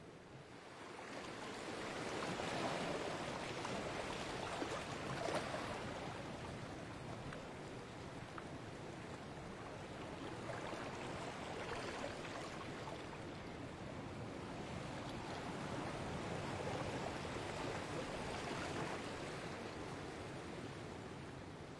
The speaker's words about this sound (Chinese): 在海边，你追着海浪玩，你看着海浪一下一下的拍打着你的脚，然后你再去写字，看着它一遍一遍的冲刷了你的字，看着沙子一点一点的来回变化，听着那些海浪的声音一下接着一下，哎呦，就特别的治愈，你知道吗？